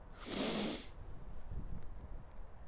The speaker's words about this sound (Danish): Så prøv at sætte hænderne på din mave, og begge hænder, og prøv at trække vejret med næsen, uden at du løfter skuldrene